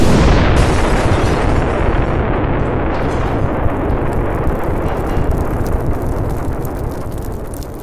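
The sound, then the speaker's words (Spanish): A massive explosion of oxygen and propane tanks in a burning basement roars continuously, a dense, loud rumble of blast and burning debris that sustains its intensity for several seconds before slowly easing. No voices are heard. “La explosión de los tanques de oxígeno y de propano hizo el resto.”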